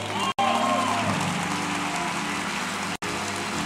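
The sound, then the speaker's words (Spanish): An audience bursts into sustained applause for the Lord, a dense, steady wash of many hands clapping at once, with faint held tones sounding underneath throughout. “Alguien dé un aplauso al Señor.”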